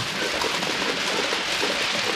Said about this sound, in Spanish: Va a comenzar a llover. Quizás sea el efecto de la construcción de plazas de toros, pero está lloviendo en toda España.